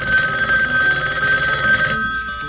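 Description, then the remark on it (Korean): A home telephone rings steadily with a bright, sustained electronic tone and layered harmonics, loud, continuing for a couple of seconds before fading slightly at the end; a wrong-number call meant for a nearby chicken restaurant whose number differs by one digit. “김모 씨네 집 전화번호가 인근 치킨집과 끝자리 하나가 달랐습니다.”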